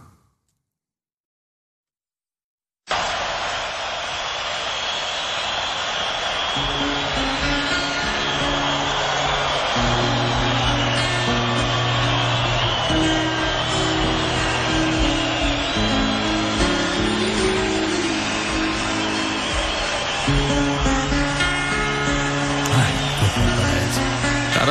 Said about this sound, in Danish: Jeg sidder hørt på det her flyvemaskine. Hvorfor så ikke bare høre på motoren i stedet for?